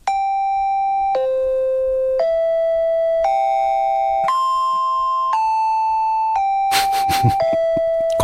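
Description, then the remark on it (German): A clear, bright chime, the shanty-melody jingle of a German radio sea weather report, plays a slow melody of about eight sustained tones, one note per second, ringing cleanly on its own with a brief noisy burst near the end. “Das ist übrigens, äh, kurz zur Erklärung nur, die, die Melodie vom, vom schönen Shanty Hamburger Fairmaster.”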